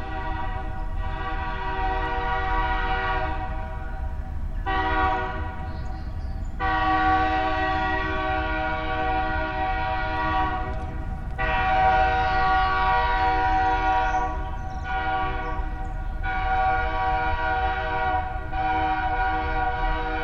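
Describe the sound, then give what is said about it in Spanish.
A train rumbles loudly while its horn blasts repeatedly in long, sustained tones broken by short gaps, the heavy low roar of the cars continuing underneath throughout, at the corner of Calzada de Camarones and Avenida Cuitláhuac in northwest Mexico City. “Al noroeste de la Ciudad de México, en la esquina de Calzada de Camarones y Avenida Cuitláhuac, aún se escucha el bramido de uno de los gigantes de la revolución industrial.”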